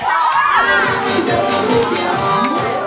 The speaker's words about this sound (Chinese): 来， 把最热烈的掌声感谢一下我们贺老师，好不好？掌声在哪里？